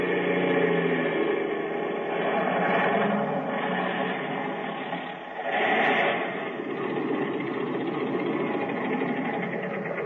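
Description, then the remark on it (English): A loud, steady airplane engine drones continuously, dipping briefly about halfway through before swelling back up and running on evenly; no one speaks. “They heard the plane landing.”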